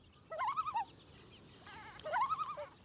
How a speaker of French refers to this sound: Dans cette grande réserve naturelle, ce hurlement, on dirait celui d'un loup. ce qui vient de briser le silence du lac, c'est un plongeon imbrun. Ce bel oiseau aquatique noir et blanc moucheté sur le dos est en train de communiquer avec la femelle.